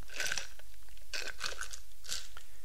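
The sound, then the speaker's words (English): Three noisy slurps of someone sipping coconut water, each a short wet burst with brief pauses between, no talking. “Drink some coconut water. Excuse me for the slurping.”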